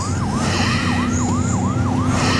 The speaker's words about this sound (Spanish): ¡Arranque! La ambulancia se aleja de la carpa.